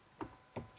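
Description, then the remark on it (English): A few quiet, sharp clicks of computer keyboard typing while doing a Google search, spaced unevenly over a brief moment with no voices, soft. “The sound of that is the sound of me googling that.”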